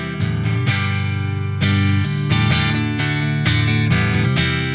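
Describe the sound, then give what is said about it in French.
A distorted electric guitar, played through a virtual amp plugin and a plugin that simulates the amp's speaker, plays a riff of chugging low chords, struck in short repeated bursts with a few sustained accents, loud and steady throughout with no talking. “On va rajouter un plugin qui simule le haut-parleur de l'ampli.”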